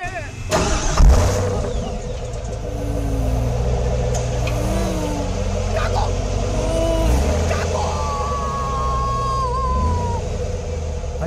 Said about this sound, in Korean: 아니 저길 어떻게 가? 아이 못 가. 못 가? 나안 가. 안 가? 이미 시동은 걸렸는데. 어? 출발하네.